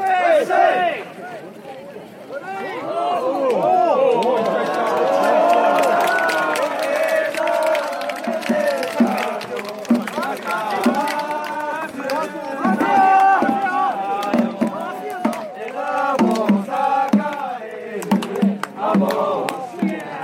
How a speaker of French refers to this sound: Ah, super, c'est vraiment l'ambiance Matsuri. Euh, bah, déjà, ça nous met, ça nous met carrément dedans. Oui, il y, a énormément de bruit et de chants en fait parce que euh, forcément, donc il y, a, un district qui va faire ça, puis il y a un autre